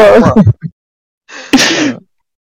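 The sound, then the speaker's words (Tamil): A brief burst of vocal noise, then a breathy intake leading into one sharp, harsh, loud cough that trails off raggedly, from a person with a sore throat during cold weather in Bangalore. “இங்க பெங்களூர்ல வேற குளிர் அல்லது தொண்டை கவுது தொண்டை கட்டு இருவல் வருது முடியல”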